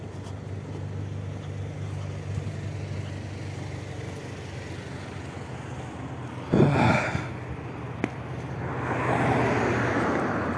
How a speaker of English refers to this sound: Some truck some truck just like pulled over on the side of the road and I was just trying to walk around it.